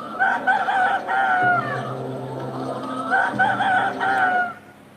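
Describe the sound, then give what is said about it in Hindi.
Chickens cluck in quick bursts while a rooster lets out a crow, with a steady low rumble underneath and a farmyard bustle throughout, on a natural farm outside India where the chickens roam freely in the open with no cages. “आज आपको एक अनोखा फार्म दिखाते हैं जो बिल्कुल नेचुरल है आपने देखा बड़ी बुरी स्थिति में रहते हैं दड़बे में रहते हैं है ना मुर्गे मुर्गियाँ लेकिन एक बिल्कुल हटकर फॉर्म बना ये भारत का नहीं है भारत के बाहर का है ज़रा देखिए”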